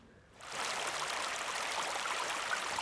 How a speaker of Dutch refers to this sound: Eh, ik heb een glas op de grond gezet onder de filmkast. En ik ga nu vanaf waar we zitten er bovenop. Dat hij nog heel is. In mijn biertje schenken.